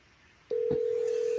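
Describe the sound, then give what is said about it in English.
A phone call to a friend connecting: after a short quiet stretch, a steady electronic line tone switches on and holds, with a faint click partway through. No one speaks. “I am going to phone a friend. Um, we're going to see if he will pick up.”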